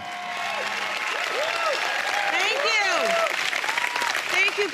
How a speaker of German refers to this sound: Und alle kommen auf die Bühne. Reese Witherspoon, Steven Spielberg, Jennifer Aniston. Alle sorgen für viel Applaus und Blitzlichtgewitter aus dem Publikum.